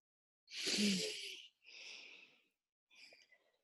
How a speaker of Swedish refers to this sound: sa de och tog ett djupt andetag. Och det är faktiskt väldigt skönt att göra det.